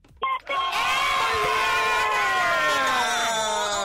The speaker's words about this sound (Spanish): ¡Qué Valderrama ni qué nada! ¡Esos son gritos!